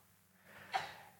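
A single quick sneeze, preceded by a short breathy intake and sounding fairly soft, with no talking around it.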